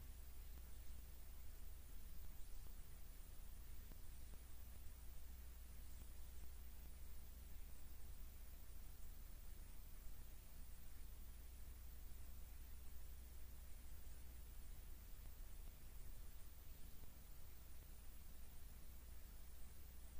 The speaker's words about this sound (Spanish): Sí, bueno, parece que estamos teniendo un poquito de interferencia, de problemas técnicos. Ya saben que este es un programa pues completamente en vivo y a veces este tipo de cosas pueden llegar a ocurrir.